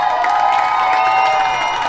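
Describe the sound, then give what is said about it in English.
A large stadium crowd of Tar Heel fans cheers steadily for their team during a soccer match against BYU, a dense, continuous roar of many voices with no pauses, loud throughout and without any single voice standing out. “You hear the crowd here, the Tar Heel fans cheering on their team, hoping to advance on to the next round.”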